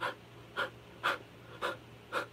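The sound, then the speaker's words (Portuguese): Five quick, shallow breaths in a steady, rapid rhythm, fairly quiet, like someone panting for air with no speech in between; a demonstration of short, apical breathing. “Então, antes de você respirar bem, você fica uma respiração curta.”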